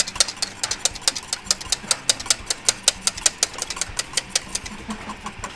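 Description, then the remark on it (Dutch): Batter being beaten hard and briskly in a mixing bowl, a fast, steady run of sharp clicking taps, about five per second, fairly loud with no talking. “Als jij doorklopt dan?”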